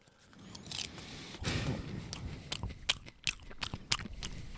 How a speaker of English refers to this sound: How much popcorn can I fit in my mouth? Ready?